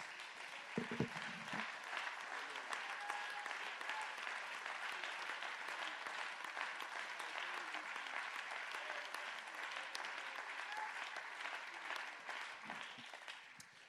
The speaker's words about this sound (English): Let's give Jesus a great big hand clap of praise.